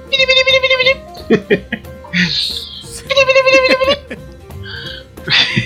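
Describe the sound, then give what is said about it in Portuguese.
A voice imitates the ray blast of the monster King Ghidorah (King Dora) with two strained, buzzy high-pitched screeches, separated by laughter and short hissing bursts, loud. “É, é legal o barulho sim, que ele faz. Sim. Quando ele solta o raio.”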